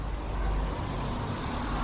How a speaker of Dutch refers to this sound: Hoorde u dat? Wat? Er ging een auto voorbij.